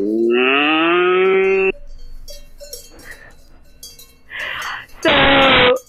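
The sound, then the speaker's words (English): A dairy cow moos loudly, one long drawn-out low then a shorter second bellow a few seconds later, with quieter rustling and breathy noises in between. “I'm a uh, dairy cow.”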